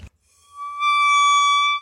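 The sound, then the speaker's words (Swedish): A voice imitates a squealing bicycle brake with one sustained, shrill, steady squeal that swells louder and holds for over a second, after a brief thump at the start. “Det lät mer som en cykelbroms än en cykelbroms.”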